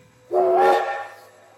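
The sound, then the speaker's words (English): A single loud train whistle blast at a massive, newly built 26-track train station at the World's Fair, where trains are unloading and taking away visitors, starts abruptly, holds a rich, harmonic tone for about half a second, then fades away over a low background rumble. “Trains inbound from all around the country are unloading and taking away visitors.”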